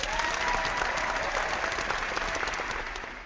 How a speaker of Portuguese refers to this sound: Mas uma salva de palmas.